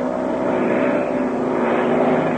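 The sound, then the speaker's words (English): A propeller airplane drones steadily, its engine hum holding an even pitch and loudness throughout, with no voices. “Can we better watch what this plane does?”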